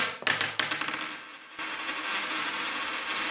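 A coin hits a hard surface with a sharp metallic clink, then bounces and rattles in quick, diminishing taps before settling, followed by a soft steady hiss.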